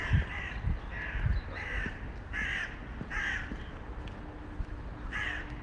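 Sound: birds calling outdoors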